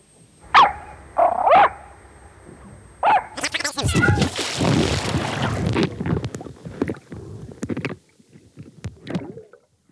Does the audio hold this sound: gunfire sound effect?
no